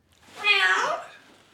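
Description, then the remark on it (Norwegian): Author Tor Åge Bringsvær, sitting at the kitchen table in Jon Bing's home, imitates a cat with a single drawn-out meow, rising then falling in pitch, fairly loud, lasting about a second before trailing off. “Tor Åge sitter ved kjøkkenbordet hjemme hos Jon og mjauer.”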